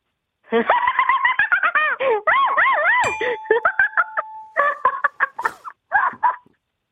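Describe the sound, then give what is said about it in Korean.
A hyena's laughing call: a rapid, high-pitched run of giggling whoops with wavering pitch, rising and falling in quick bursts for several seconds, loud with no one talking. “하이에나가 이제 웃는 소리입니다.”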